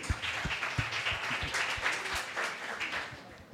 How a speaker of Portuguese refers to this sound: Gente, dá uma salva de palmas, pastor aí.